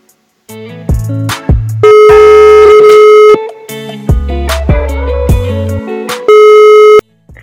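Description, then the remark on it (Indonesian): A telephone ringing tone plays loudly while a call is placed to a friend: sustained electronic tones over a short, beat-driven musical backing, repeating in two long bursts with no one speaking. “Kita langsung telepon aja.”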